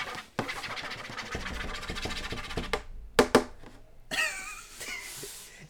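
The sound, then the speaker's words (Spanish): A pen scribbles a signature on paper, loud and scratchy in quick vigorous strokes, with a couple of sharp taps and a squeakier final flourish. “Es que esa firma que son así”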